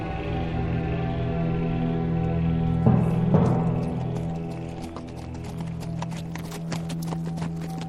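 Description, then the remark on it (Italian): Horses' hooves clip-clop in a steady, quick rhythm that grows more distinct in the second half, over a constant droning tonal background with no talking. “Prendete le armi e preparate i cavalli, partiremo subito.”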